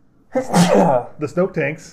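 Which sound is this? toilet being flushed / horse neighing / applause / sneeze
sneeze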